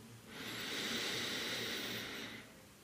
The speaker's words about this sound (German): Und lass uns noch einen tiefen Atemzug zusammennehmen und dabei gewahr sein, wo wir sitzen, wie es uns gerade geht. Wir atmen ein